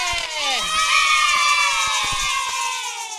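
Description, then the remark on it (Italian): A large group of children at a Radio Sei Forte broadcast shouting and cheering together at full volume, a continuous high-pitched roar of overlapping young voices, loud. “Io sto benissimo e abbiamo qua tantissimi bambini, fatevi sentire! Più forte!”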